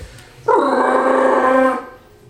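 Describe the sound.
A person imitates a Wookiee roar: a single sustained, harmonic growling howl lasting over a second, loud and steady with a slight waver before it cuts off.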